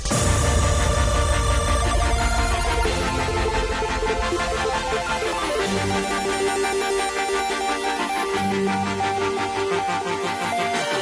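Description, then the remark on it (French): A dense electronic music passage, the track's build-up lasting over a minute and a half, plays continuously at steady loudness, layered synths with sustained tones and a busy high end, building intensity without any voices. “Ce que vous entendez là, c'est le build-up que le morceau passe plus d'une minute trente à faire.”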